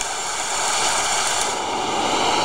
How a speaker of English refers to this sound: Ocean waves. So why do I want these background noises? Uh, just to block out construction noise, coworkers, snoring partners, you know, that kind of thing.